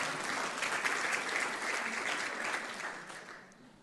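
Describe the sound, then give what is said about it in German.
Steady applause from an audience at a youth church service, a dense wash of many hands clapping at once, fairly loud throughout and tapering off slightly at the end. “wenn einer klatscht, klatschen wir alle.”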